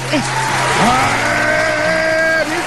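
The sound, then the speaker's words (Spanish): A steady, dense wash of applause sound effect runs the whole length, played over a radio programme's theme tune, with some sliding, sustained tones rising and falling above the clapping. “Mi rollo es el rock por los aplausos de verdad.”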